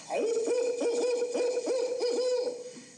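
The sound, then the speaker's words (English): A person's voice mimics an owl, giving a steady run of wavering, looping hoots, fairly loud, with no other talk around it. “He gets up there in the morning at four o'clock, you know, and the old owl, well, he'll owl,”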